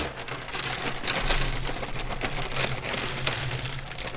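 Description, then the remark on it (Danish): A dense, continuous clatter of many small jigsaw pieces pouring out of a bag, a steady rattling patter of tiny clicks lasting several seconds with a low hum underneath. “Og nu, nu hælder jeg altså de her brikker ind på”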